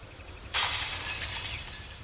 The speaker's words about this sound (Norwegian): En maidag 2001 knuser noen ruta på hytta.